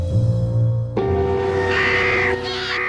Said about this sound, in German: Und es gibt eine neue Tierdoku, die sich um die Vögel kümmert, die vielen von uns eher unheimlich sind. Dabei sind Krähen und Raben hochintelligent, können Werkzeuge bauen, untereinander kommunizieren